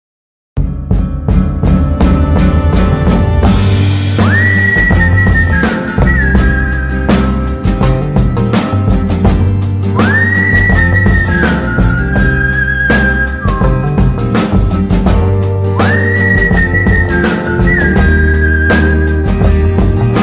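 A song plays loud and steady with a full band, while a clear whistled melody rises and glides over it in three repeating phrases, opening the tune before any singing.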